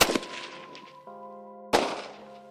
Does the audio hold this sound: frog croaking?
no